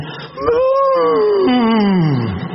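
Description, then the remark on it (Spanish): A voice imitates a whale call with one long, loud, moaning tone that holds steady, then slowly slides downward in pitch over about two seconds. “Veo que la ballena hace como”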